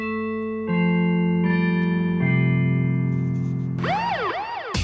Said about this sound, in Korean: 자, 바로 이게 골든벨입니다. 이 골든벨이 울리면 여러분들은 예, 가만히 계시면 안 돼요. 이, 이 벨소리가 딱 나면 저희가 퀴즈를 내드리거든요.